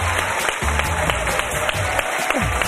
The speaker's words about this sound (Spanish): Su alcalde, Juan Jesús Facundo Suárez. Un aplauso para él.